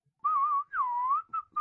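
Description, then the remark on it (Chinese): Soft whistling by a young woman through pursed lips, in a few short, wavering tones around a mid-high pitch, with brief pauses between notes and no talking. “宁无情都着急了，想了想后，居然嘟着小嘴儿，轻轻的吹了吹口哨。”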